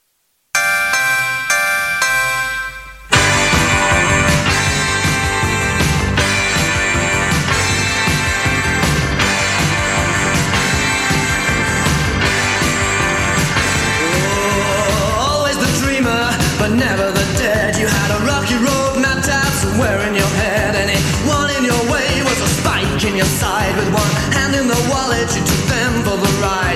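A synth-pop song plays loud, opening with a few seconds of bright, chiming synth notes before a dense, driving full-band arrangement kicks in and carries on steadily.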